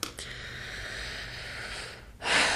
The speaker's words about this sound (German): Ich muss die ganze Zeit so sch schwer atmen, weil mich das so berührt.